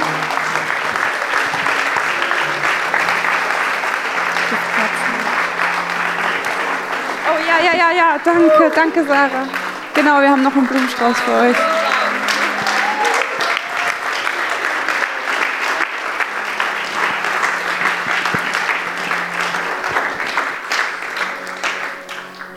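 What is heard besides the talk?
audience applause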